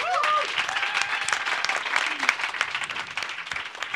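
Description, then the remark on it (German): Sustained audience applause, a dense wash of many hands clapping steadily at an even loudness throughout, with a few faint voices and a brief whistle-like tone near the start. “Applaus.”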